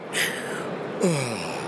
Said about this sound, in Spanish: el, signo más claro de dormir es el bostezo. Entonces yo bostecé.